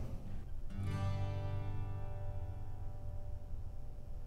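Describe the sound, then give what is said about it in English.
A single strum on a spruce acoustic guitar lands sharply, then its chord rings out and slowly fades over several seconds, fairly loud, with no voices. “Just give that, that guitar a strum.”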